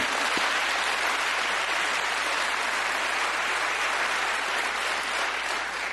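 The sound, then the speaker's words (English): The audience at Beto O'Rourke's CNN town hall in Iowa applauds loudly and steadily after he calls for impeachment proceedings against Donald Trump, a dense wash of clapping hands that holds at an even level for several seconds with no voices over it. “Um, he th- for the first time he came forward, got the biggest applause line of the night.”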